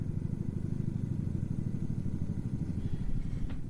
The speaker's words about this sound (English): You hear the helicopter, Mr. Producer? Do you or don't you? Hold on, let me hold up the. Everybody listen. Hear